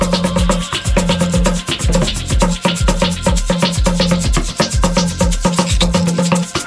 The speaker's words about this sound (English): Oh, yeah, those are real, real instruments. Yes, they brought their instruments on board the flight. The A380. Can you hear the drums?